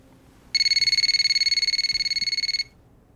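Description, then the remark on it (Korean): A telephone rings at around 1 a.m. with one loud, high-pitched electronic trill, a rapid buzzing warble lasting about two seconds before cutting off, with no voices. “새벽 1시쯤 되어 그녀에게 전화가 왔죠.”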